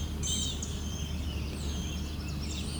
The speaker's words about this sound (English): And yes, there is totally an orchard oriole here that I'm now hearing.